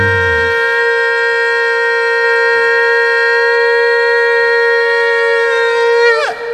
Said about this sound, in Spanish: todos aplaudiendo y tocando el shofar y gritando de júbilo y danzando allá en su casa.